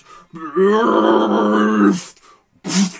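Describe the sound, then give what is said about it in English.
A human voice imitates the roar of a zombie clot: a loud, drawn-out quivering growl lasting over a second, followed by two short breathy rasps. “It is going to roar and just you hear this quivering”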